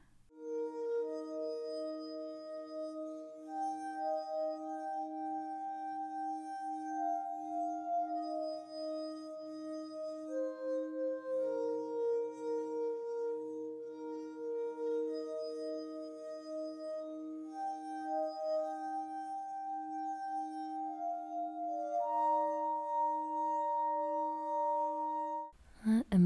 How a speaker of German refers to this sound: Vielleicht war das, ist das hier sogar mit so, so Glas? Ja. Gestrichenem Glas.